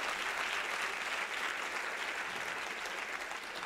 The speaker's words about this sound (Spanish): Si usted le va a dar al Señor ese aplauso, yo creo que usted debe dárselo bien.